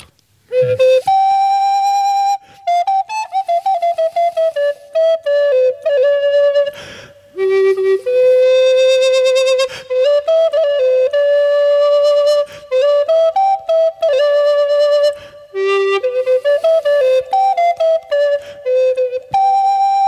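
A solo flute plays a lively melody of sustained and quickly articulated notes, moving up and down in a mid-high register with brief pauses between phrases. No voices are heard.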